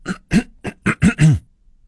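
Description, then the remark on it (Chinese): A voice imitates a little hedgehog in a children's story coughing while eating salty peanuts from a table: six quick, raspy, voiced coughs in a rapid, uneven run, moderately loud, with the last cough drawn out slightly longer. No words are spoken. “小刺猬咳嗽了起来，发现这些花生和自己平时吃的不一样，那咸咸的味道让人迷恋，香脆可口，好吃极了。”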